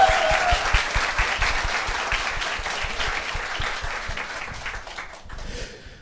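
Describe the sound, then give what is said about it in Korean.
Sustained applause welcoming the political affairs editor on a broadcast, a dense wash of many hands clapping steadily at a fairly loud level, tapering slightly toward the end with no talking over it. “박수를 맞주십시오 아 반갑습니다.”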